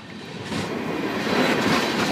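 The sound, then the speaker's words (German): A very fast train rumbles past a spot where concrete posts were built to stop people jumping aboard, a dense, steady roar of wheels and cars that swells slightly louder as it goes, with no voices over it. “Du müsstest zugreifen und dann parallel mitrennen können. Er ist sehr schnell, aus dem Stand kommst du nicht hoch.”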